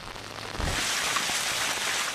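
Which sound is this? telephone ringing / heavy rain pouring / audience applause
heavy rain pouring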